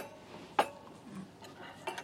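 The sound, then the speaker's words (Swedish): Metal starter and main-course cutlery being handled at a set dinner table: a sharp clink near the start, then softer scrapes and a second lighter clink of silverware, with no one speaking. “Ja, det, det är förrättsbestick och huvudrättsbestick och det är de yttersta man brukar ta men det får du göra som du vill.”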